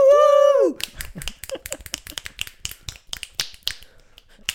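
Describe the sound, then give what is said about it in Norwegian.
A brief steady pitched tone gives way to a quick, uneven series of sharp finger snaps mixed with dull stomping thumps, loud and crisp, with no talking. “Trampeknips.”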